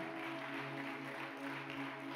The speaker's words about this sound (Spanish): Vamos a darle aplauso fuerte.